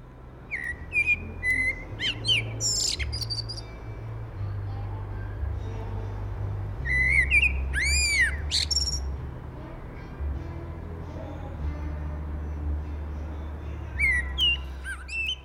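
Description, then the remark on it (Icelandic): A blackbird sings in a garden in Reykjavík in bursts of clear, fluting whistled phrases with rising and falling notes, while muffled party music from the neighbouring house thumps underneath throughout with a steady low bass. “þarna heyrðum við í svartfæstunum og aðeins ómaði undir partítónlistin.”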